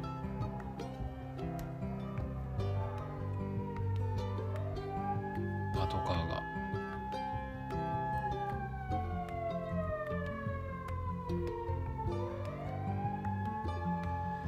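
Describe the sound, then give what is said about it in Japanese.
An emergency vehicle siren wails continuously, sweeping up and down in pitch, loud over a low rumble of traffic as it goes by. “なんかあのサイレンとかも指向性とかならないんですかね指向性になったらあかんのか交差点入る時に聞こえへんからダメなんか”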